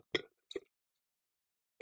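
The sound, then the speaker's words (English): A sip of water: three brief, wet gulping sounds, two in quick succession and a third after a pause, with no talking. “I'm going to take a sip.”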